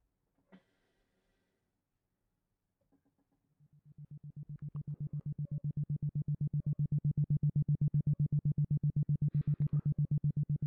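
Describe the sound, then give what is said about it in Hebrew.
A low, steady tone fades in and then pulses rapidly and evenly, about eight beats per second, holding a constant pitch and loudness until the end after a brief quiet start. “עכשיו, בגלל ש-7.83 הרץ זה תדר שנמצא מתחת אה, לטווח השמיעה שלנו, כי אנחנו שומעים בין 20 ל-20 אלף הרץ, אז ה-7.83 אה, הרץ הוא יבוא לידי ביטוי על ידי תדר איזכרוני, אה, בעצם כמו פעימות, פעימות בתדר של אה, אה כמעט 8 הרץ, זה נשמע ככה.”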